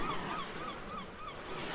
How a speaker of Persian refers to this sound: خب موجای دریا آهسته میشن حرکت دستامون آهسته تر میشه الان میتونیم صدای مرغای دریایی رو بشنویم کم کم موجای دریا آروم میشن و به ساحل میرسن